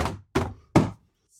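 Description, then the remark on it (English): Three heavy, blunt thuds land in quick, even succession, each a loud whack with a short muffled decay, as someone hits a zombie that looks like Bernie Sanders. No one speaks. “I'll whack it because he's a zombie.”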